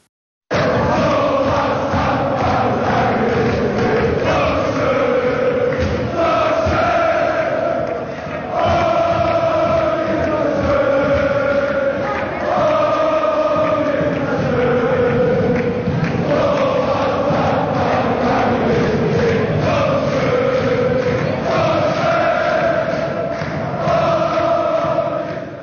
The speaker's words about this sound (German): So, das war der Jubel in Kaiserslautern.